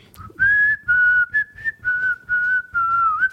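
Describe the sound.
Someone whistles a film's theme melody, a clear steady tone moving through several held notes in short phrases with brief breaths between them, and no talking.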